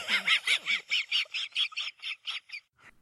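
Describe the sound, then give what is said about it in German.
A cartoon dog's wheezy, snickering laugh from the children's series Space Race 500: about a dozen quick, raspy breathy bursts in a steady rhythm, loud, trailing off into a faint last wheeze. “Es gab mal die Kinderserie Space Race 500 mit dem Hund, der immer so lacht.”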